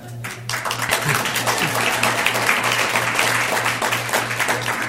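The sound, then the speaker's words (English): An audience breaks into applause, many hands clapping in a dense, crackling wash that swells quickly and holds steady at a loud level, with a faint low hum underneath. “And everybody could clap and I'd feel really great.”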